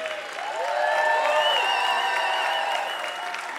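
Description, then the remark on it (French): A crowd applauds and cheers steadily for a few seconds, dense clapping mixed with sustained whoops and shouts from many voices, loud, in a concert hall, cheering for the musicians. “Faites du bruit pour tout le monde dans la salle. Faites du bruit pour les musiciens.”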